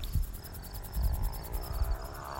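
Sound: crickets chirping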